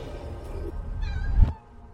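A cat lets out a single drawn-out meow, clear, rising and then breaking off abruptly, with no one talking and only a faint background hum around it.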